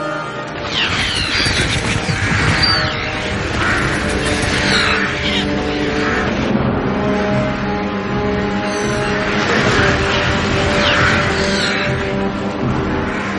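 A flock of black birds, Saruman's spies from Dunland, sweeps past almost at ground level over the rocks where the group is hiding, in a loud, dense clamour of harsh, overlapping caws and screeches, continuous for the whole stretch with no pauses and no voices.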